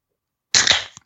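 A drink can snaps open with a sharp crack, followed by a short burst of fizzing hiss that fades within half a second and ends with a small click.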